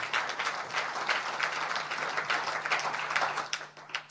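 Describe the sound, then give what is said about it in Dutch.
An audience applauds steadily, many hands clapping in a dense, continuous patter that holds at an even level for several seconds with no voices over it. “Maar ehm, ik, wil jullie even een applaus daarvoor geven.”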